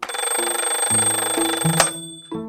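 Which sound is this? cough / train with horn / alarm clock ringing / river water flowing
alarm clock ringing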